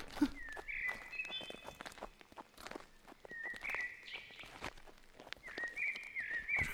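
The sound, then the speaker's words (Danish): Quick footsteps crunch along a path as a person runs ahead to see if they are on the right way, irregular and moving steadily, while birds chirp intermittently in the background. No one speaks. “Jeg løber lige frem og ser, om vi er på rette vej.”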